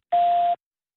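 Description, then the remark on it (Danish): A single steady electronic beep from an old-fashioned telephone answering machine, a pure tone held for about half a second with a clean start and stop, fairly loud, then silence, signaling to record. “Det kan være, at vi er ekstremt heldige, at den slår på en gammeldags telefonsvarer.”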